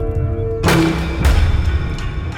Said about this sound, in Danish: Ud af det blå flyver både kaffekande og stegepande igennem luften. Der bliver skudt efter dem, og de er heldige, at det bare var morgenmaden, der blev ramt.